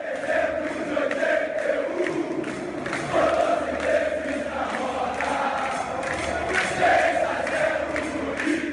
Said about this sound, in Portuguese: E finalmente o clube voltava a disputar uma fase final do Mundial Interclubes. A torcida cantava feliz.